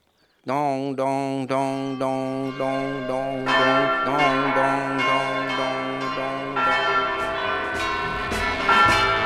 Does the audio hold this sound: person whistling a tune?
no